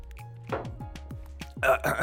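Someone sips water, with about five quick gulping swallows in a steady rhythm, followed by a short breathy exhale.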